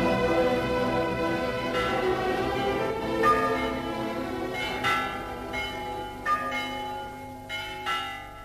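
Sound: bells ringing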